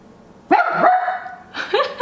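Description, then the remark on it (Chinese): A dog barking at a door lets out a long, drawn-out bark that wavers in pitch, then a second, shorter bark follows. Both are loud and tonal, with no talking. “怎么也看着门在叫？不要叫”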